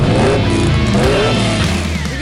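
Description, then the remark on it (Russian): A car engine revs hard and accelerates, its loud, throaty roar climbing in pitch over about two seconds with no pauses, with no voices. “готовы ли вы от души надавить на акселератор? Дави на газ.”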